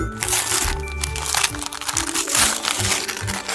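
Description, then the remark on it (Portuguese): Paper crinkles and rustles continuously as a gift for the A22 in the Algarve, a train, is unwrapped, a busy, dense crackling texture with irregular crunches and tears, fairly loud and steady for a few seconds. “Temos aqui uma prenda para a A22. Deixa lá ver.”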